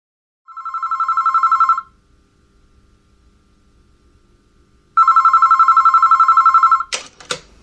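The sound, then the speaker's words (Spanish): A mobile phone rings in two loud, rapidly trilling bursts separated by a few seconds of near silence, followed by a short clatter like the handset being picked up. “Me están tocando el timbre y, suena mi celu.”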